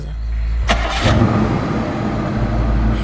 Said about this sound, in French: Le tueur redémarre sa voiture.